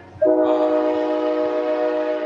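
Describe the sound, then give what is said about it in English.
A train horn blasts loud as a train approaches, a single sustained chord with steady stacked tones that holds for a couple of seconds over a low rumble of rail noise. “Uh, Train. Train's coming.”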